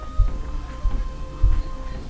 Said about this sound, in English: Focusing in on the sounds coming from the woods, you can hear soft gallopings of a horse that's getting closer from the shadows.